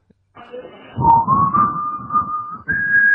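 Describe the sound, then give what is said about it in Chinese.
A person whistles a long, steady note, imitating the sound used to coax a small child to pee, rising slightly in pitch then stepping higher near the end, over a low rumbling background. “这是模仿的逗小娃儿屙尿的声音。”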